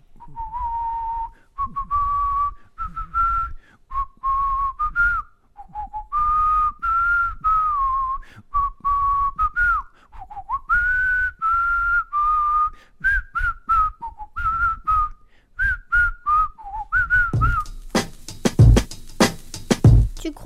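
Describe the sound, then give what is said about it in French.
A father whistles a lively melody for about seventeen seconds, clear, with short phrases and pitch slides, followed by a few sharp clattering knocks near the end. “Papa, qu'est-ce que tu nous siffles”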